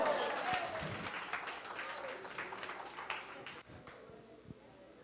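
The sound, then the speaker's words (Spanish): An audience applauds, a dense, steady patter of many hands clapping at once, holding fairly loud before thinning out and softening over the final second or so. “Algunas hermanas ya están tan resignadas que ni aplauden.”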